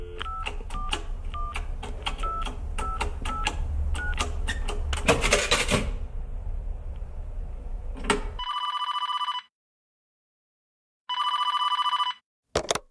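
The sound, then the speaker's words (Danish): Clicking, clattering sounds as a payphone in a phone booth is dialed in 1985, then a phone line rings twice with long electronic bursts separated by silence, ending in a sharp click. “Så da min far vil høre min mors stemme igen, må han finde en telefonboks.”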